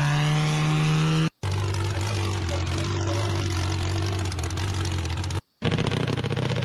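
A big pulling tractor's engine idles loudly and steadily, a deep rumbling drone with a low, even throb, briefly cut off twice before resuming.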